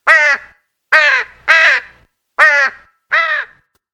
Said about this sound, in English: They must be ravens. There's ravens dancing on our roof.